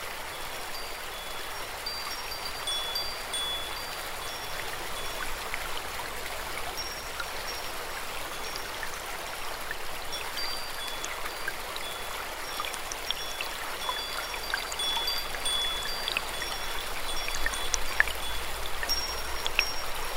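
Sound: flowing stream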